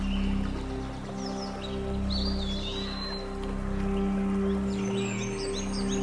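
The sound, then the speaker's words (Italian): Forest ambience with a steady wash of flowing stream water, scattered bird chirps and calls above it, and a low continuous hum underneath; no one speaks. “ritorna ad ascoltare il bosco e il ruscello intorno a te.”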